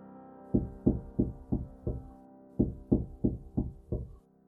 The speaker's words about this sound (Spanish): A su esposa le pareció muy extraño, pero se dispuso a retomar el sueño cuando escuchó que tocaba en la puerta.